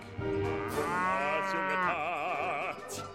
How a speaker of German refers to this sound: Wie im Schlaf beherrschen sie ihre Stimmen. Gut, die eine oder andere Kuh sticht gelegentlich der Hafer und ihr rutscht ein falscher Ton raus.